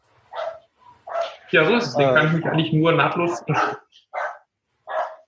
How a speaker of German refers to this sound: Wer bellt da jetzt? Das ist Full Metal, ne? Full Metal bellt.